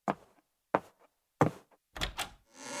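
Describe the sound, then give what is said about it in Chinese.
A visitor knocks and a woman opens the door: three heavy wooden thunks at a steady pace, then a rattle of latch clicks and a soft rushing swish as the door swings open. No voices. “好久没来了，阿姨马上来开门。”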